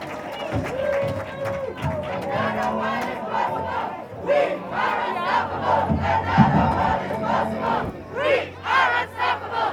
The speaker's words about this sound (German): Macht noch ein bisschen Stimmung hier. Prost, Applaus. Dankeschön.